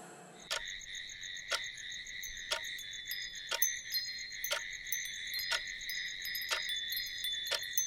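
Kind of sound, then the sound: insect, crickets chirping at night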